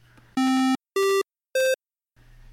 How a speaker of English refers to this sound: If the top of our wave is 1 and the bottom is 0, we can make a really easy waveform by just switching between 0, 1, 0, and 1. And that's called a square wave. And I'm going to play it right here.